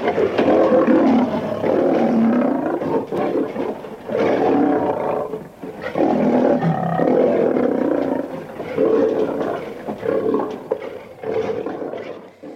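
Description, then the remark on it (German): A lion roars in a series of deep, drawn-out bellows, several long loud calls with brief pauses between them, powerful with no talking. “Und deswegen möchte ich euch ein Löwengebrüll.”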